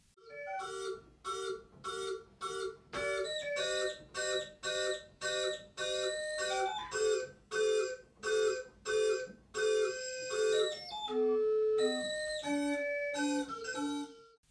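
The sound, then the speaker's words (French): A large wind-activated sound installation created in 2002 by the artist duo Art Orienté Objet emits choppy, stuttering bursts of bright, harmonic electronic tones, pulsing in a quick regular rhythm that briefly shifts to lower, more sustained notes, with no voices. “Elle s'active dès qu'il y a du vent et produit des sons saccadés.”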